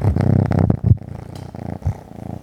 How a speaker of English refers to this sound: It's that cat purr.